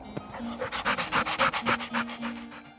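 A large St. Bernard dog pants heavily and rapidly, a steady run of breathy huffs, about a dozen quick rhythmic breaths with a faint whine underneath.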